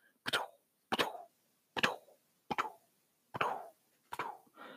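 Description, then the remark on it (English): A ping pong ball clacks back and forth off the paddles and the table in a steady rally, six crisp hollow taps about evenly spaced, fairly loud, with no talking. “I could hear, you know, you know, I could hear the ball going off one of the paddles, hitting the table, coming back, same same noise.”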